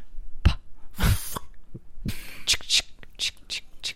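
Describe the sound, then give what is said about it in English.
A voice imitates a cast iron pan being scraped: a string of short, breathy rasps and hissing strokes, some harsher and louder, repeated in an uneven rhythm. “That's scraping the cast iron can.”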